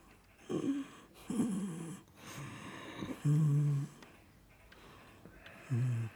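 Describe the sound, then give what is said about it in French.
Soft snoring while asleep: slow, regular in-and-out breaths with a low rumbling tone on several of them, repeating about five times with no talking. “Tant pis quand il ronfle doucement comme ça. Quand il dort, sa respiration.”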